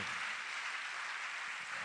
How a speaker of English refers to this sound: Let's clap for Jesus for all that the Lord is doing.